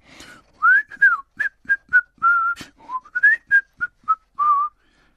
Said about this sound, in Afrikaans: Hy is baie gelukkig wanneer hy huis toe ry en fluit die hele pad 'n vrolike deuntjie.